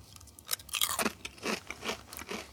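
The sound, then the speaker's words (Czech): Crisp, crackly crunching of Pringles Wavy Roasted Jalapeno potato chips being chewed, about five or six bright bursts in an uneven rhythm, moderately loud with no talking. “Tohle jsou, prosím vás, pěkně Pringles Wavy Roasted Jalapeno, nebo také Jalapeno, což jsou chipsy”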